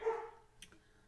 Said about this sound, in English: That's my dog upstairs. He's saying hi to me.